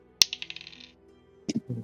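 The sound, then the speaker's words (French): Physical dice, rolled for a group stealth check, hit a hard tabletop with a sharp clack, then rattle through a quick run of fading bounces before settling; a couple of duller knocks follow near the end. “L'idée analogue, les dés analogues, non, exact.”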